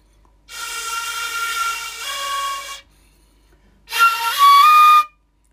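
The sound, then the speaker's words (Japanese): A shinobue bamboo flute, the kind not tuned for songs, plays a simple tune in two short, breathy phrases. A held note shifts pitch, then after a brief pause a louder phrase steps through a few notes, played alone. “うん、なので例えば普通の曲をこう吹こうと思うとなんだろうカエルの歌さえも吹くのがとても難しいというか、ま、なかなか無理。”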